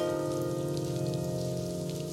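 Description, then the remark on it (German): Steady rushing of running water, like a toilet flushing somewhere in the background of a song recording, continuous and even throughout with a faint hum underneath and no voices. “Da läuft irgendwo eine Klo Klospülung im Hintergrund, oder?”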